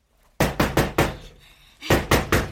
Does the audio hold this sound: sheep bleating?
no